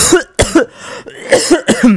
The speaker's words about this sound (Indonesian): Itu batuk sehat, bukan batuk sakit.